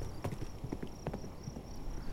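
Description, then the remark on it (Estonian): Horse hooves clip-clop in a quick, steady rhythm of sharp knocks as a horse trots away after its rider slaps it, with a faint background hiss and no voices. “ta andis hobusele laksu, et truu loom algava tapluse jalust ära ajada”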